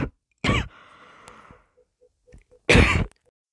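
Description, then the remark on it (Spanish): A coughing fit: two loud, harsh bursts of coughing about two seconds apart, with a faint breathy rasp between them and no talking. “Eh, hola otra vez, se me ha acabado antes el tiempo y además me he cogido un ataque de tos.”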